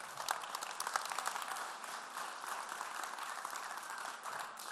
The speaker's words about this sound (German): Weißt du, das ist der Grund, warum ich übertrieben begeistert bin von unseren Blaze-Mitarbeitern und Leitern. Gebt ihm einen fetten, fetten Applaus.